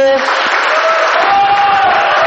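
A crowd applauds steadily and loudly for the whole stretch, a dense wash of clapping hands, with a faint tonal whistle or cheer threading through the noise.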